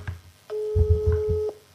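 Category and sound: signal or alarm, telephone ringing tone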